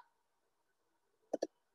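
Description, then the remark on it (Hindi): A quick double click of a computer mouse, clicking an arrow while moving a chart to another sheet in a spreadsheet, two sharp taps in rapid succession against a faint background hum, with no one talking. “जैसे मैंने अपनी शीट को चार्ट का नाम दिया सेलेक्ट किया डिजाइन पे गई मूव चार्ट पे गई एरो पे क्लिक किया”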